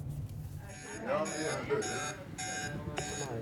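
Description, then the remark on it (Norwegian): An electronic driver distress alarm in the Oslo Taxi dispatch centre, meaning a driver feels threatened, sounds in four evenly spaced, harsh buzzing bursts, fairly loud, with faint voices and room noise underneath. “Den alarmen her betyr at en sjåfør kjenner seg truga.”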